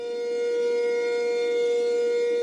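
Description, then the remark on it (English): A civil defense air raid siren sounds for the annual air raid drill in Taipei, Taiwan, at lunchtime on a Monday, wailing at a steady, sustained pitch, loud and unbroken throughout, with no voices present. “It's time for the annual air raid drills, drills designed to prepare the population for a possible invasion by the island's superpower neighbour, China.”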